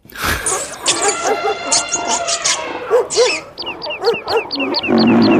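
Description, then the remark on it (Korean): A noisy chorus of animal cries used as a sound effect in a song, overlapping at once, with pig-like squeals, yelps and growly lion-like roars in a loud, busy burst, like a crowd of animals cheering together. “얘들 뭐하는 거야 단체로 얘들이 지금 동물들이 환호하는 소리입니다 지들 간에는 지금 예, 콘서트 와서 지금 환호하나 봐요.”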